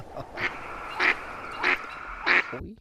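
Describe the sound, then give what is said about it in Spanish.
A comical doorbell at Dalí's house on the Costa Brava rings out as four loud, nasal honks, evenly spaced like a duck's quacks, over a soft background hiss, then stops abruptly. “El, timbre que tiene, el timbre que tiene Dalí.”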